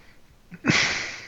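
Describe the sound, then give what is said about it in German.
A single heavy exhale huffs into the microphone from a person sitting at a desk with a hand in front of the mouth, a broad breathy rush that starts abruptly and trails off over about half a second, with no speech. “Ich schnaufe wieder, ich weiß.”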